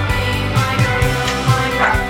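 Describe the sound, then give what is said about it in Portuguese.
The speaker's female pet dog barks repeatedly in quick, yappy bursts in the background, over a steady low hum, with several sharp barks spread across the moment. “Minha cachorra latindo ao fundo.”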